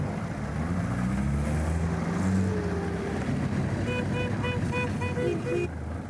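A steady low rumble of 15 car engines idling, parked tightly together in thick exhaust smoke at a parking lot in the centre of Elverum, Norway, where the local car-cruising scene meets, with a brief series of high electronic beeps chirping over the drone near the end.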